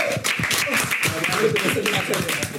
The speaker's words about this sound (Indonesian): Sekali kita tepuk tangan untuk kultivasi jazz.